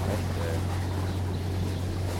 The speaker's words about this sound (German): Oh, oh, wir werden... oh, shit. Aller Worten Wellengang, wir werden nass. da wird sogar das, das Wasser ganz unruhig.